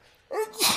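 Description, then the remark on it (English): A single sneeze: a brief voiced build-up followed by a sharp, hissy burst, heard on its own without any talking. “Bless you.”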